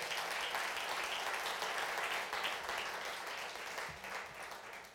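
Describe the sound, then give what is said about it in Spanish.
A crowd applauds for Christ steadily for several seconds, a dense wash of many hands clapping at once that stays loud throughout and tapers only slightly near the end. “Démosle un aplauso al Cristo de la gloria.”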